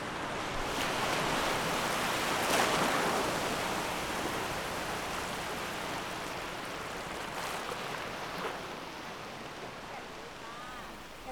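Steady roar of ocean surf washing onto a shore at a seawall in Pranburi, with swells rising and falling in broad surges. It is continuous and fairly loud, with no voices.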